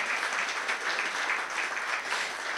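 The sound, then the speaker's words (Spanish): A crowd applauds steadily throughout, a dense wash of many hands clapping at once with no individual claps standing out, moderately loud and sustained with no talking. “Dele un aplauso si Dios está encontrando tu vida y ahora ya tienes esperanza.”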